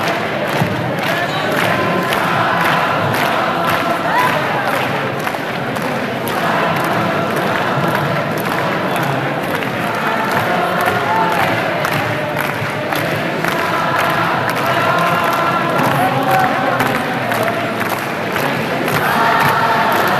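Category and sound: crowd, concert crowd cheering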